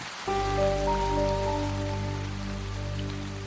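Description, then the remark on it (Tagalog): Steady rain falls as a continuous hiss, starting abruptly and holding even throughout, with sustained low musical tones droning underneath. No one speaks. “Isang araw ay kausap ko siya habang inaantay kong tumila ang ulan.”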